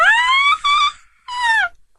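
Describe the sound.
A very high-pitched, excited squeal in three quick bursts, the first rising and longest, then a short pause before a final shrill cry; loud and close, with no talking.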